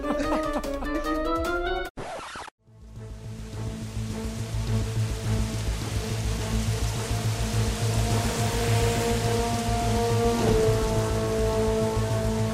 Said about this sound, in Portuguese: Ela está do lado de fora da taverna, embaixo da chuva de granizo.